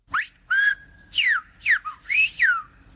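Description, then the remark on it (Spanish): Whistled speech in Silbo canario between two people, from the island of La Gomera: a quick series of sharp, gliding whistles rising and falling in pitch, loud, with short pauses between phrases and no talking. “Eso todavía hay gente que lo mantiene, todavía hay gente que lo practica y vamos a ver un ejemplo de dos personas que se comunican a través del, silbo canario.”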